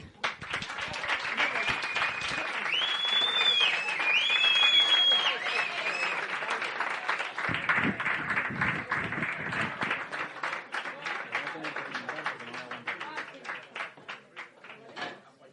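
Loud, sustained audience applause with dense crackling claps and some cheering whistles early on, tapering into thinner, scattered clapping toward the end.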